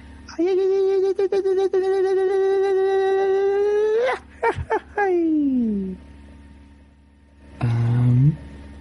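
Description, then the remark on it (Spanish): An irrintzi, the Basque high-pitched shout: one voice holds a long, steady ringing note, breaks into quick choppy yelps, slides downward, then gives a short final rising cry. “Sí, sí, sí. Eso es un irrinchi.”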